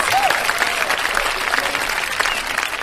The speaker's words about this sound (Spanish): ¡Ea! ¡Un aplauso, chiquinis!